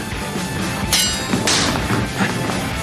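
Fencing swords clash in a few sharp, bright strikes at irregular intervals as Chuck fences, one ringing hit standing out loudest, over a steady wash of background noise.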